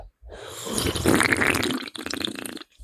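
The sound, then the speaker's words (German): A noisy slurping sip from a drink, a wet, sputtering rush of air and liquid lasting over two seconds, fairly loud, ending in a few choppy gulping bursts. No one speaks. “Ich trinke jetzt einen Schluck ganz leise.”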